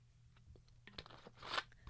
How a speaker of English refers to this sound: I'm going to take a sip of water real quick.